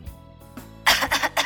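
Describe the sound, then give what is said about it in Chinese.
A short cluster of coughs: a faint throaty hack, then three loud, harsh bursts in quick, uneven succession, with no talking over them. “老师，老师，这时候转过身，用袖子挡住咳嗽声。”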